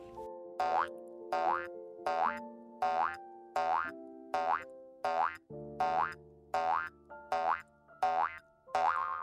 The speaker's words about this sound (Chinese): 当他正在想着要怎么办的时候，突然有一只兔子咚咚咚的跳了过来。